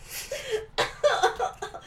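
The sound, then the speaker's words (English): A spluttering burst where a cough and a laugh come out together, a breathy rasp followed by several choppy, voiced chuckles over about two seconds. “I coughed and laughed at the same time.”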